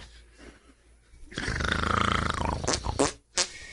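A man sleeping on a cot snores: a loud, raspy snore rattles for over a second, followed by a couple of short, sharp snorting bursts, with no talking.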